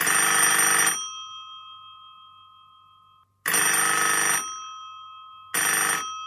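A telephone rings three times as a caller phones in, each loud, bright burst of bell-like ringing followed by a lingering tone that fades into a pause; no one speaks.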